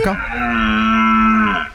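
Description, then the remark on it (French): A single loud, drawn-out stag (male deer) call, played in an animal sound quiz, a steady tonal bellow that holds one pitch for over a second before tapering off, heard alone. “C'était un cerf.”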